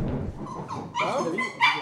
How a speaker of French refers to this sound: Ce chien, je vais le tuer, je crois.